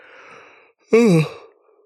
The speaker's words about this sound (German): langweile ich mich selbst beim Reden oder warum muss ich dauernd gähnen hier? ist ja furchtbar.